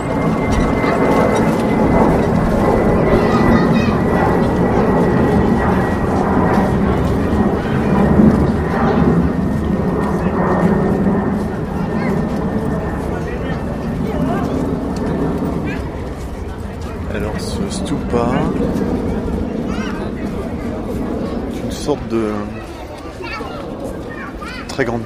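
A dense, steady wall of traffic rumble fills the scene, engines droning with a low roar that could include an airplane overhead, plus a faint sustained whine and scattered honks and clatter.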